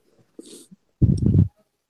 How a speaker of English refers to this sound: So, who is breathing into that? That's not me. I was holding my breath just to make sure it wasn't me.